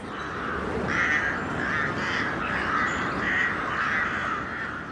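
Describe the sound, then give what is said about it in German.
A raven caws in a steady run of harsh, hoarse croaks, one after another across several seconds, loud, with no voices. “Raben haben Menschen immer fasziniert und ihnen oft Angst eingejagt.”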